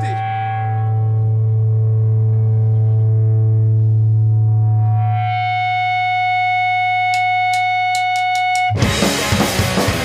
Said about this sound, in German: Die Rückkopplung ist wichtig.